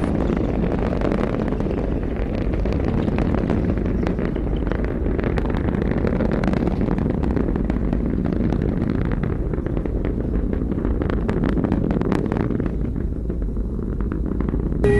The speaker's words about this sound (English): Ten, nine, eight, seven, six, five, four, three, two, one. Lift off. All right, now lift off, and the clock is started.